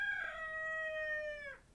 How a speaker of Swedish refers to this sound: Tack tuppen.